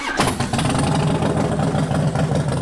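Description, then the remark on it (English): A Harley motorcycle engine kicks in almost immediately and holds a steady, loud, throaty drone, running continuously with no voices over it. “Not only did he survive it, but he survived it because he wanted to ride again on his beloved motorcycle.”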